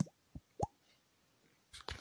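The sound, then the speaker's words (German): A beatboxer's mouth imitating water drops: three short, pitched plops with a rising glide, the third the loudest, followed by a burst of breathy, noisy clicks near the end. “Okay, äh, ich mache leichte Beatbox-Fortschritte. Jetzt kann ich auf diesen Wassertropfen.”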